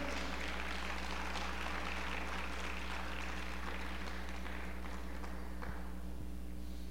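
An audience applauding during an afternoon church service, a dense crackle of many hands clapping steadily for several seconds before thinning out near the end, with a low electrical hum underneath and no voices.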